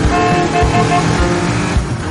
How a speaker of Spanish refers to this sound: Un coche les adelanta.